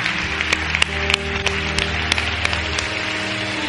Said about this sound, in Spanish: Y ahora para terminar, ¿Qué tal si le das un aplauso a Dios como una señal de lo que será esta semana que viene?